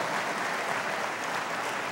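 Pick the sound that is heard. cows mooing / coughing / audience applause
audience applause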